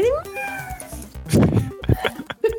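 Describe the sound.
A voice imitates a cat with a drawn-out, rising meow, then a few shorter, breathy meow sounds follow in quick succession, fairly loud.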